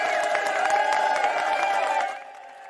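A crowd applauds with dense, rapid clapping mixed with cheering and whistles, loud and steady for about two seconds before fading off quickly.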